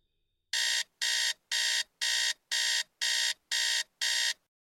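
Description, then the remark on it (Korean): A mobile phone alarm from an app linked to a cattle barn's alarm system rings loudly at bedtime in eight evenly spaced, harsh electronic bursts, each about a third of a second long, insistent with no voices. “잠자리에 들렸는데 휴대폰 알람이 요란하게 울렸다.”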